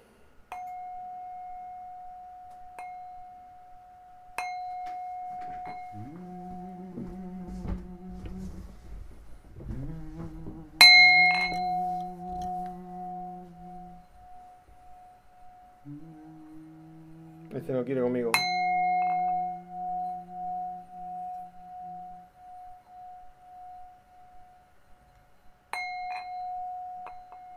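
A singing bowl rings with a steady, sustained tone, struck four times at roughly even intervals, each strike bright and metallic, with a wavering, buzzing lower hum swelling in between.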